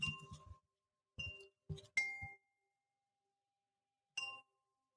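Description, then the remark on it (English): Two newly received coins, one of them a Chinese coin, clinking as they are handled and held up, a few quick bright metallic chinks in short clusters with gaps between, then one last ringing clink after a pause. No one speaks. “These are my two newest coins that I just received for myself, mostly for Ada. I'm going to hold them up quickly”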